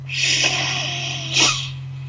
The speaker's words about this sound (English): And take a breath in through the nose